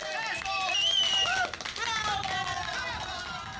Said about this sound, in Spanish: Por eso ya no hay que hacerla esperar más y démosle un gran aplauso a la ganadora de nuestra dinámica